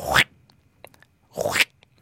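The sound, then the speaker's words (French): Stridulation of a Mecapoda elongata katydid, a species from Malaysia that synchronizes its stridulation: two loud, harsh rasping chirps about a second and a half apart, each a quarter-second buzz, with faint scattered ticks in between and no voices. “Alors je dis sauterelle, c'est le vrai nom, c'est Mecapoda elongata, euh, une espèce euh, de Malaisie qui a la particularité de synchroniser leur stridulation.”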